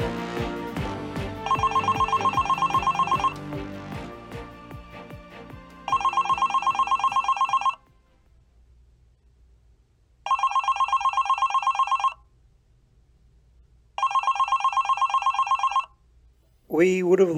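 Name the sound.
telephone ringing unanswered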